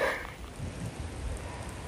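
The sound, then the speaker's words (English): Heavy hailstones, so heavy they look like snow, pour down in a dense, steady clatter and hiss, a continuous wash of tiny impacts with no voices, just the constant drumming of the storm. “That is hailstones, if you're listening to it. So heavy, it looks like snow.”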